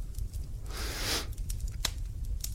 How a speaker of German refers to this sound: Und du machst hier sogar ein Bad. Ja, das ist das, was ihr knistern hört vielleicht.